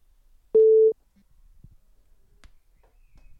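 A single loud, steady telephone ringback tone sounds briefly, a pure pitched beep lasting under half a second, followed by near silence with a few faint clicks.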